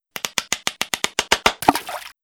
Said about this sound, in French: C'est alors qu'un gamin arrive, qui perce un trou avec un marteau et un burin.